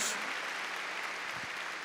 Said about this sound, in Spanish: A ver, démosle palmas fuertes a Él. Qué lindo esto. Gloria a Dios.